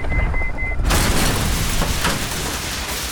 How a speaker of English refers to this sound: The two teams file out and approach the building. Immediately, there's gunfire.